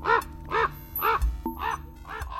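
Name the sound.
crow cawing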